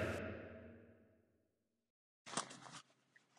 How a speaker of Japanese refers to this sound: 今ちょっとチャックの音が聞こえたかもしれないけど、申し訳ありません。